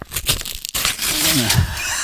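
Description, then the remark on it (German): A page is torn out of an antique book: a brief crackle, then a longer, continuous ripping rasp that holds steady for over a second, with a faint voice murmuring underneath. “Okay, also dann würde ich vorschlagen, diese Seite aus dem Buch äh, zu enden nehmen.”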